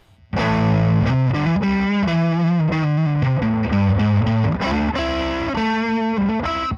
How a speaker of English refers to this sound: Th- this pedal handles drive a lot better than most tube screamers. I, I thought think- that was at like that was like at three o'clock. Let's push this up to five o'clock. That's and that's maximum drive.